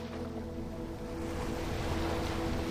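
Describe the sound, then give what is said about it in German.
Steady rush of ocean waves under a soft, constant wind, a continuous wash of sea noise with no distinct breaks and no voices. “Über das Meer streift ein leichter Wind hinweg.”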